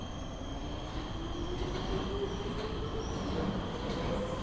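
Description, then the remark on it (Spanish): A subway (subte) train in Argentina runs steadily along the rails, a dense continuous rumble with faint high-pitched wheel squeal threading through it, loud throughout with no talking. “Tenemos que tomar este subte.”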